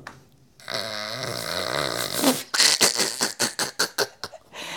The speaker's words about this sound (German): so eine Partytröte